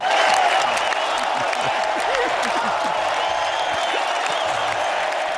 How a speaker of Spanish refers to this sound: Última gran ovación para el defensa y el capitán más artista del madridismo.